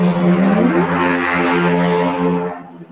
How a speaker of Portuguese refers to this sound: A moto passando, ó. Tem que comentar moto.